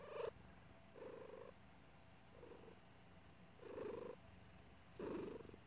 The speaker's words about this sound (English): And listen to the purr. Let's listen live now to hear the, the adorable purr of Miss Lily. Quiet now, please. Listen to that.